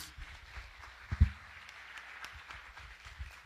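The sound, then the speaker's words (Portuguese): An audience claps for Jesus together in a steady, dense wash of applause that holds for several seconds, with one brief low thump partway through and no voices over it. “Palmas para Jesus.”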